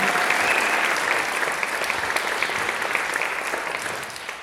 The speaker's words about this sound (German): Danke für den Applaus. Ich hoffe, Sie klatschen anschließend auch.